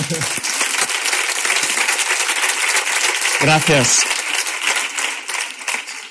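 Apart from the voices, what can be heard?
audience applause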